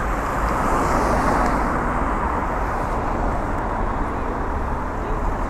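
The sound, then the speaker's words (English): Steady, loud roar of road traffic passing at a car crossing, a continuous wash of engine and tyre noise with no clear breaks and no one talking. “this bit might need anything out because it's just me stood at a car crossing waiting to cross the road.”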